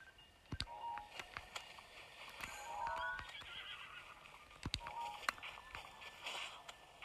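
In a video game, a horse whinnies amid scattered sharp hoof clops and clicky game sound effects, with short tonal beeps layered over a steady ambient bed.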